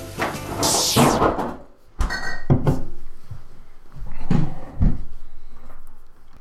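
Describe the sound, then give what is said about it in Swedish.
A fridge door is pulled open and bottles clink and knock together in a few sharp bursts, with rustling handling noise between them and no voices, as someone takes out a drink, a Sommersby Mango Lime cider. “ja, jag sitter ju eh, framför mitt kylskåp och jag tänkte lika bra att ta fram en dryck till.”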